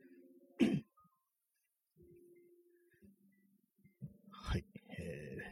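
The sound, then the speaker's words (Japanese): A man clears his throat twice, two short, rough bursts a few seconds apart, with soft background music humming quietly between them. “始まってすぐなんですけども、あの、ちょっと咳割れします。”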